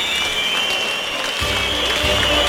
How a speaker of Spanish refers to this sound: Palmas y pitos, fuerte división de opiniones diría yo para este medallista que ha abierto la tarde